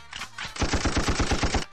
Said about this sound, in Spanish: Arrancamos a los tiros en las cosas raras.